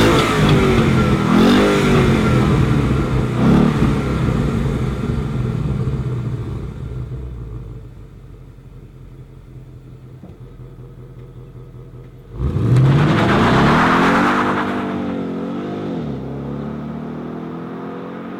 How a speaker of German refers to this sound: Also ich finde ja, dass der Ferrari 641 wie so eine Kekssäge klingt.